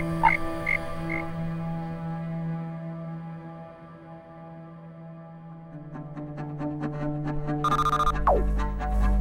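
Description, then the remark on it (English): A frog named Bruce croaks, starting with steady droning tones and breaking into quick, rhythmic rattling croaks, capped by a brief rising squeak near the end. No voices. “Bruce the Frog.”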